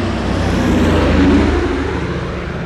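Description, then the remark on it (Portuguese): Propeller airplane engines start up at an airport as the propellers begin to spin and the wind blows hard, running with a loud, steady droning roar, a low throbbing hum beneath a broad rushing noise, swelling slightly midway through; no one speaks. “As hélices do avião de vocês já estão começando a girar, o vento sopra forte, quase arranca os, os chapéus que vocês estão, faz os paletós voarem com capas.”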